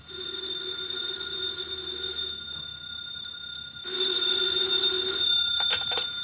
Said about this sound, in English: later that day, the phone in the Lawrence house on Berry Hill Lane began to jingle. And this time it was no phony.